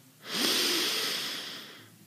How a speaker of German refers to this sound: Und wir atmen gemeinsam durch die Nase ein.